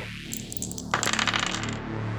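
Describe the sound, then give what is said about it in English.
Dice clatter and rattle onto a surface in a quick burst of sharp clicks, settling after about a second, as they are rolled for a role-playing character's strength attribute; no one speaks. “Otherwise, we take the dice as they come. And here we go with our first attribute, strength. The roll.”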